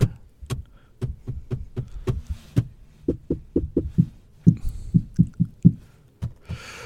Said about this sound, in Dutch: ik ben nu de dashboard van de auto aan het drummen. Ja.